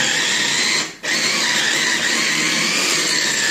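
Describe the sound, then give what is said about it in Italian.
A loud, steady mechanical whir of an electric meat grinder running continuously as it grinds meat with herbs and spices for hamburgers, with a brief dip near the start before the motor hum resumes at full strength. “Quindi chiudiamo, ecco qua, mettiamo il nostro motore e cominciamo a ah, macinare”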